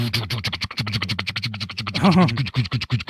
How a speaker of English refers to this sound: That's the bus starting up.